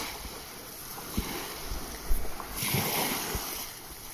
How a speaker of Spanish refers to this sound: Respira, quédate unos minutos más en esta frecuencia, sintiendo el sonido del mar.